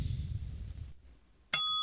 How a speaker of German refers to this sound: Dann drücke ich doch mal die Klingel.